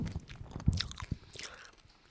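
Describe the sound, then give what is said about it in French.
Crunchy chewing and biting of food, with a sharp bite followed by a few moist, crackling chews and scraping mouth sounds, no talking. “J'aime quand on t'entend manger.”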